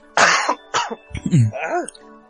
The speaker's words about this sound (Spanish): Ah. la tos.